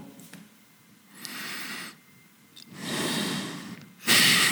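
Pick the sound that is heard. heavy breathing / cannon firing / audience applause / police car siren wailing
heavy breathing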